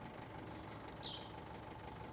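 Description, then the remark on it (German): A tractor engine idles steadily with a low, continuous rumble, fairly faint and unchanging throughout, while a short high chirp briefly cuts through around the middle. “wir fahren mit dem Traktor den Hügel darauf zu der Öpfelanlage.”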